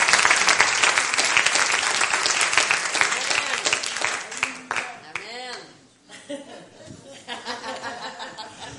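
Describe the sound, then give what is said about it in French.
An audience at a French-language church service breaks into sustained applause for the King of Kings, dense and loud, with voices cheering and calling out over the clapping before it thins out and fades toward the end. “On applaudit le roi des rois.”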